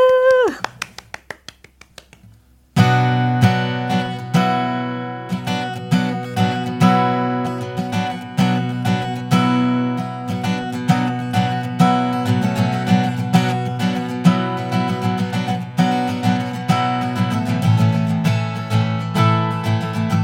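A live band launches into a cover song sung live by a guest singer: a single ringing tone fades out, then a steady, driving beat enters with layered, loud instruments playing continuously.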